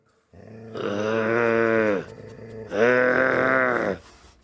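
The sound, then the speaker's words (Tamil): A person imitates with their voice the growl of a dog baring its teeth: two long, loud, rumbling snarls, each lasting under two seconds, separated by a short pause, with no other talk. “பார்த்த நாய் தன்னுடைய பற்களை எல்லாம் காட்டிக்கொண்டு”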